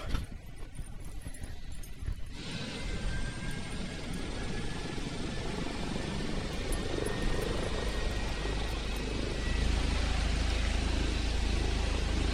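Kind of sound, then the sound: vehicle, helicopter taking off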